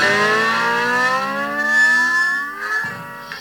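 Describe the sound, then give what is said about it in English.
A voice imitates the call of a roadrunner coming down the road at night with one long, sustained, wavering tone that rises slightly in pitch, loud, with no other sounds around it. “I was gonna just I decided what I was gonna find out what it was, and I saw a roadrunner. here it come down the road.”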